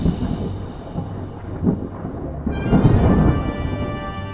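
A thunderstorm with a low, continuous rumble of rolling thunder that swells and grows louder about halfway through, joined by a brighter hiss like rain. No one speaks.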